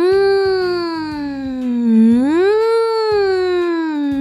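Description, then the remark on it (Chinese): A voice imitates a fire truck siren with one loud, sustained wail. Its pitch dips slowly, rises again, then holds steady for about four seconds. “在马路上，有时候我们会看到一种红色的车子，会发出”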